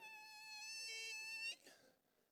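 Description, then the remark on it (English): A voice imitates squeaking car brakes with one sustained, high, shrill squeal held for about a second and a half, then cut off abruptly, with a brief trailing sound after. “Or you put those brakes on and you hear like,”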